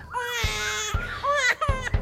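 A baby left all alone cries in loud, wailing bursts, the pitch rising and falling through a few sobbing breaths, with no one talking.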